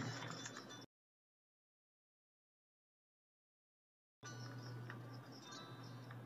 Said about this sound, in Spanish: sí se escucha un grillo. Espérame.